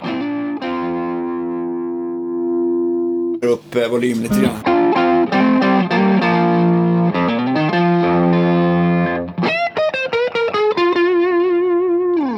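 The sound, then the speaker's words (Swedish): Electric guitar through a Greenlight overdrive pedal in tight and normal mode, with tone at 12 o'clock and gain at 1 o'clock, playing sustained distorted chords and short choppy strums with a thick, gritty tone, loud throughout, with a brief spoken comment partway through. “Ja, ja, okay, och jag lägger den faktiskt i tightläge och normalläge och eh, har tonen klockan 12 och gainen klockan 1.”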